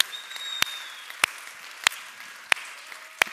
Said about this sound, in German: Komm mal, ist irgendwer dankbar für unser Dream Team. Nochmal, komm mal, einen riesen, riesen Applaus für unser Dream Team.